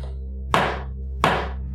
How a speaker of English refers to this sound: Justice Card would bang his gavel.